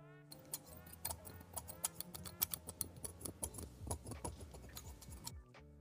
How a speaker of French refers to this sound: Moi j'entendais des ciseaux. Oui. Ouais, moi, aussi. Je suis un truc comme ciseaux aussi. Ciseaux de cuisine, ciseaux euh, Je sais pas exactement, mais bien joué, c'est la bonne réponse.